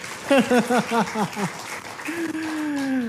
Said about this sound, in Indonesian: Tepuk tangan dulu dong buat kita semua ya.